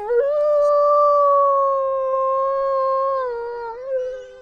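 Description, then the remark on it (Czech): A person imitates a wolf howl: one long, steady, sustained wail held for several seconds, sliding down slightly at the end. Fairly loud, with no talking. “udělá další vlčí jingle teď.”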